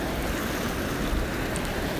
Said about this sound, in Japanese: はいというわけで今回はね自分がパワースポットだと感じる場所でね実際の波の音それをお届けしました。